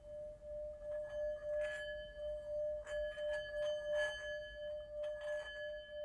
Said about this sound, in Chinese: 还有这个一个 peaceful 的东西哈，叫做磬。哦。 它叫磬。 对啊，这个磬哈，嗯，如果你一直在旁边转的话呢，就会像转这个玻璃杯一样，嗯，会产生一种共鸣。